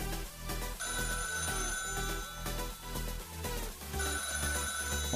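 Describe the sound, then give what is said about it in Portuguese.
A telephone rings continuously and loudly, its ringing tone layered with a busy musical ringtone that has a steady beat and bright repeating tones, with no voices heard. “Liga o telefone aí. Põe pra tocar.”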